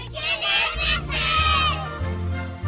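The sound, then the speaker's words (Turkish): A group of children shout a call loudly together in unison, calling "Bıcırık!" to summon Bıcır, their voices high and strained, the chant rising and holding for a couple of seconds before trailing off. “İsterseniz hiç beklemeden bıcırımızı çağıralım yüksek sesle.”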